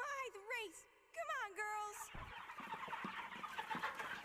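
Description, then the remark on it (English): A voice imitates a chicken's frantic squawking and clucking in two quick, wavering bursts, followed by a noisy, crowded wash of sound that carries on to the end. “This is Zelda when you hit a chicken with your sword.”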